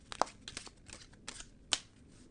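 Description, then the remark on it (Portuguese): A deck of cigano fortune-telling cards being shuffled, with a few crisp riffling snaps and soft papery flicks in between, quiet, with no one speaking. “Vamos embaralhar as cartas.”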